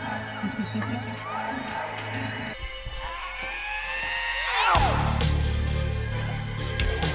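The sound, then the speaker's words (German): Digitally processed horse samples, processed in Vienna, Austria, in fall 1984: warped, whinny-like gliding tones and sweeping harmonic squeals over a churning low layer, with abrupt cuts and shifts in texture, moderately loud, no talking. “Das waren Digital Horse Samples, processed in Vienna, Austria, during fall 84.”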